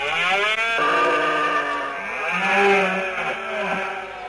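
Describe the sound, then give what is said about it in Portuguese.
A red deer stag bellows during the September rut in the Serra da Lousã, calling from the ridges to attract females, a long, loud, moaning roar with rich harmonics that rises and falls, heard clearly on its own with no voices. “Nesta comunidade poligâmica, os machos sobem para as comiadas e soltam estes bramidos para atrair as fêmeas.”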